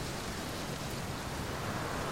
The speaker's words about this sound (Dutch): Ik hou ervan om in de regen te fietsen. Het is net een meditatie, weet je? Het geluid van de regentruppels op mijn helm, de geur van de natte aarde. Het is als een zintuiglijke ervaring.